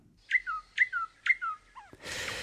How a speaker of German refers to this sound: Gehört haben sie die meisten schon. Aber äußerlich erkennen, das können die wenigsten. Denn mit ihren dunkelbraunen Flügeln und dem hellbraunen Bauch ist die spatzengroße Nachtigall ein eher unauffälliger Vogel, bis sie eben den Schnabel aufmacht.